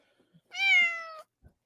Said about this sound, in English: Say meow.